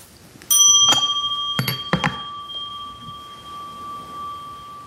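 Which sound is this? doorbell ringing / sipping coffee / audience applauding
doorbell ringing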